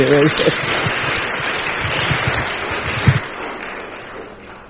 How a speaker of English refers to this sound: And we usually, you know, applaud a guest speaker, so why don't we applaud him as he comes?